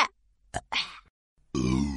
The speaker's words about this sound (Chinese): 爸爸打大嗝，我打小小嗝。喝汽水容易打嗝，真的太好玩了。